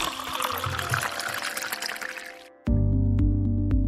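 Milk pours steadily into a glass with a bright, splashy gurgle for a couple of seconds, then stops abruptly as a loud, low sustained tone takes over.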